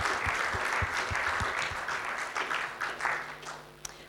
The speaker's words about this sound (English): Let's give them a round of applause right now, church.